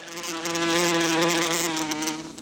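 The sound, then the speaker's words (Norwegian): Hornets buzzing in a steady, droning hum with a low, rich pitch that swells slightly and holds through the whole stretch, with no voices present. “De siste to årene har han fått flere henvendelser fra folk som vil bli kvitt geithamsbol.”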